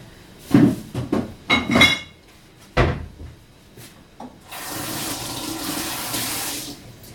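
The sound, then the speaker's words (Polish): A few hollow clunks and a sharp knock as things are handled, then water pours steadily from a bottle for a couple of seconds, fairly loud, as a little water is poured in to rinse the last concentrate out of the bottle for a broth. “Nie wlewamy oczywiście całej butelki wody, bo później w garnku wywar byłby zanadto rozcieńczony.”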